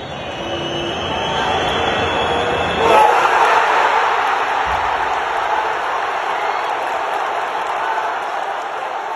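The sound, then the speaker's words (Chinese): A huge stadium crowd of Argentine football fans roars and chants without pause as Messi scores a penalty in a match against France, a dense, loud wall of voices that surges briefly about a third of the way through and then holds steady. “就大家要注意啊，就是今天我是坐在法国球迷区，就是就能感觉到阿根廷球迷的音效声音很大。”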